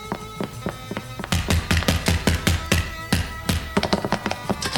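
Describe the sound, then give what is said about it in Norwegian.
Loud knocking on a door: after a quiet moment, a long run of sharp raps comes in quick, uneven bursts over a low background hum. No one speaks. “Det er ikke noe å være så skvetten for det om det knakker litt på døra.”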